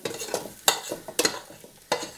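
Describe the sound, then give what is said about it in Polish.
Fried onion being scraped with a spoon from a pan, tilted against the pot, onto the bottom of the pot, with three sharp metallic scrapes over a faint sizzle, fairly loud, with no talking. “O, cebulka gotowa. W patelni przerzucę ją na dno garnka.”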